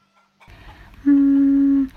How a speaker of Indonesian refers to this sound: Wah, ada ayam. Krr, krr.